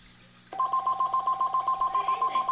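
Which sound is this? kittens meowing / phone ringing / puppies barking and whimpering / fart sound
phone ringing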